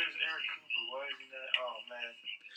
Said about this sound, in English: It's not, really live, bro. I know that is wild. There's like a three second delay.